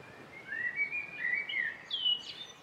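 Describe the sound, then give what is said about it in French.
Birds chirp and warble at dawn in thin, high whistled phrases that rise and dip, a soft continuous chorus with no voices present. “Les premières lueurs de l'aube, associées au gazouillis des oiseaux, réveillent brusquement notre héros, et il se redresse.”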